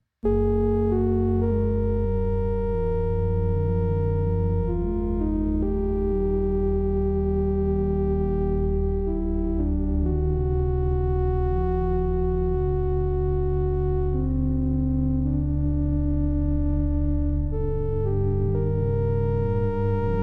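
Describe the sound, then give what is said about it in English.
A sustained CS80-style synthesizer drone run through a Tensor pitch-shifting pedal while its knobs are adjusted, stacking several tones at once into a thick polytonal chord that slowly shifts and wavers, steady and fairly loud, with no voices. “And then I ran into the tensor and I was just messing around with some of the knobs on it, as you'll hear.”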